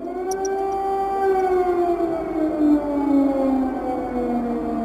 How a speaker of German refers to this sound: Am 24. Februar 2022 heulen über Kiew zum ersten Mal Sirenen.